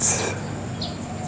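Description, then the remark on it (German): Light rain begins to fall outdoors as a new day starts, a steady, soft hiss, with a couple of faint bird chirps in the background. “Mittlerweile beginnt es hier leicht zu regnen.”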